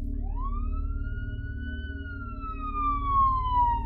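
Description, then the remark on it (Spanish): A police siren wails as a patrol car passes, its tone rising then slowly sliding down, over a steady low engine rumble that swells toward the end. “Pero la patrulla que pasó haciendo sonar su sirena nunca se percató de los gritos de auxilio.”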